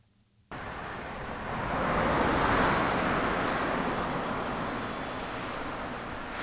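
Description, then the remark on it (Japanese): Steady rushing of a river stream at the Tsumako bridge near the old Nakasendo post town, where Gifu Prefecture meets Nagano, about 20 minutes' drive into the mountains from Nakatsugawa Station; a broad, continuous watery hiss that swells slightly after the start and holds evenly throughout, with no voices. “えー、岐阜県の中津川駅から車で20分ほど山あいの方に走りまして、えー、ここは岐阜から長野に入ったところです妻子橋という橋がありまして川のせせらぎが聞こえますけれども”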